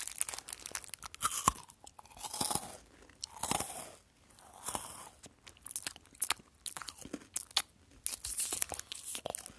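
Crisp crunching and chewing of a Coffee Crisp chocolate wafer bar, with repeated sharp bites and brittle cracks in an irregular rhythm, loud, with no talking.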